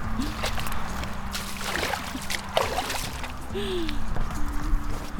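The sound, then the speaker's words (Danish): Wet sloshing and squelching of rubber boots wading through slush and a large puddle in Ilrup Ådal, with uneven splashy steps over a steady low hum. “Det her, det er virkelig lyden af sjap og gummistøvler.”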